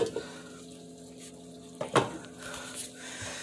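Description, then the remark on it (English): A steak sizzles in a frying pan with a steady, fairly quiet hiss and crackle throughout, with a brief clink of metal on the pan near the middle. “ooh making a nice steak mm. Mm. hear that that's a nice sizzle.”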